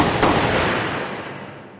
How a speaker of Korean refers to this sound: 어, 이거 총소리죠? 어, 옆총 같은데.